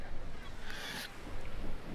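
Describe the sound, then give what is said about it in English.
A boat moving across open water, with a steady low rumble and wind buffeting throughout, and a brief bright splash or wave rush midway through. “We are taking a boat then.”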